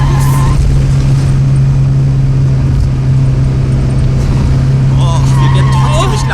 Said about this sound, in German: Runterschalten! Du musst mit dem Motor bremsen!